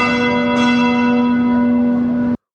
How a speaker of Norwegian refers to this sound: Noen tror nok at dette bare er kongens ønskedrøm men så lyder en tindrende klar klokkelyd ut av ingenting.